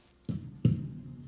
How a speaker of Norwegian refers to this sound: det var lyden av telefonen min som traff bordet.